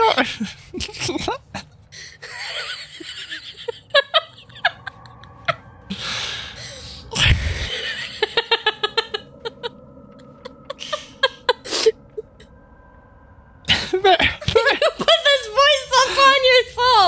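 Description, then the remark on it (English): Someone imitates eight summoned badgers with a rapid run of squeaky chitters, snorts and gasping squeals, pausing briefly, then erupting into a louder burst of chattering animal-like noises near the end. “You summoned eight badgers. They didn't have to sound like that, though.”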